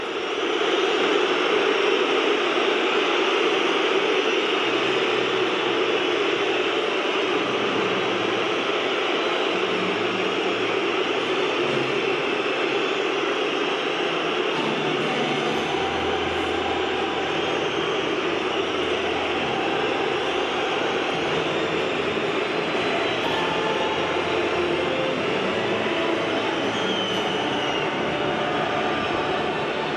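A dense, steady roar of Liverpool fans in a large football stadium at a UEFA Champions League match, buzzing like a beehive and holding a constant loudness for the whole stretch, with faint low rumbles swelling underneath and no distinct voices standing out.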